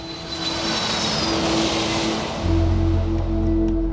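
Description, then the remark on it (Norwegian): A steady airplane engine drone on a flight to Qatar, a broad roaring whoosh with a sustained hum, growing heavier and deeper near the end as low rumble joins in. No voices. “trosset advarslene og satte seg på flyet til Qatar.”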